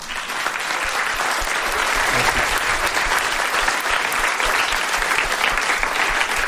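An audience applauds steadily, a dense, even wash of clapping hands that stays loud and consistent throughout without pauses or voices.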